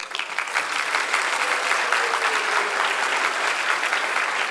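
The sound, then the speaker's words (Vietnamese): Sustained audience applause welcoming two guests at an Arena Multimedia workshop titled Design to Grow, a dense, steady crackle of many hands clapping at a fairly loud, even level for several seconds, with no voices standing out. “còn bây giờ thì hãy dành một tràng pháo tay để chào đón hai vị khách mời của chúng ta ngày hôm nay”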